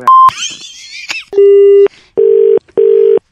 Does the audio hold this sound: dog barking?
no